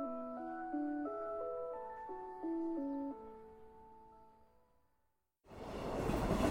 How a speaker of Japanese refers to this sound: そうやって、いつものような自己完結をしたところで、通過の電車が飛び過ぎ、遮断機は上がり始め、人の群れが動き出す。